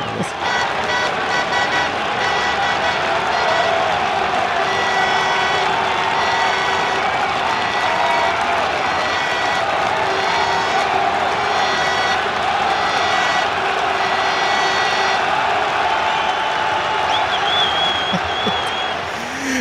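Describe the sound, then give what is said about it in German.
A large crowd applauds continuously with whoops and cheers mixed in, a dense, steady roar of clapping and shouting that stays loud for the whole stretch. “Ja, genau, so einen johlgrölenden Applaus mit äh, ja, ja.”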